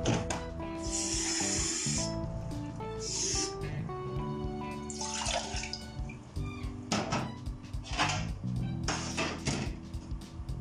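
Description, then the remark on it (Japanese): A gas stove burner being lit under a Geo Product pot holding half a cup of water: fairly loud bursts of hissing gas, a run of sharp ignition clicks and a few metallic clinks of the pot, with no talking. “今ガスコンロの上にせて火をつけました今お湯を向かっているところなんですけれども”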